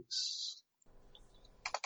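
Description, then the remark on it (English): A bright hissing rattle, then a low rumbling tumble, then a burst of sharp clattering clicks as 26 dice roll and scatter across a hard surface, with no talking. “All right, roll 26, 26 dice.”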